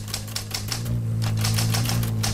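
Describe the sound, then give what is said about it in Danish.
Rapid typewriter key strikes clatter in a steady run, a loud sound effect used to censor a swear word, over a constant low hum, with no voices. “Jamen, jeg kan også se, at den, øh, den censurerer selv op på skrivemaskinen.”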